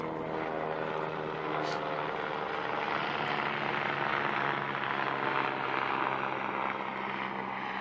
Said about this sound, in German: Und zwar, ja, lass mal erstmal hier den Hubschrauber vorbei.